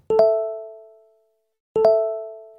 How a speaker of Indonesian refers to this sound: Saat aku akan beranjak dari tempat tidurku, tiba-tiba notifikasi handphoneku berbunyi. Kulihat itu ternyata dari David yang mengucapkan selamat pagi untukku.